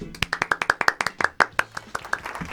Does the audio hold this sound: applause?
yes